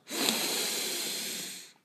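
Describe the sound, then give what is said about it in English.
A single long, steady inhale through the nose as breath work, clearly audible, lasting under two seconds with a soft airy hiss and no talking. “It's just as simple as breathing in through your nose.”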